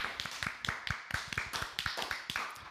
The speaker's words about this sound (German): Applaus für das Wetter.